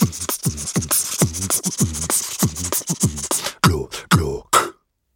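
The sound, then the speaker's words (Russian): Loud human beatboxing: a voice mimics a drum kit using only the mouth, with no drums or instruments, making punchy kick thumps, sharp snare bursts and hissy hi-hat sounds in a steady, fast groove, ending on a few spaced hits before silence. “Это искусство, которое называется human beatbox. Это когда ты производишь ритм своим ртом.”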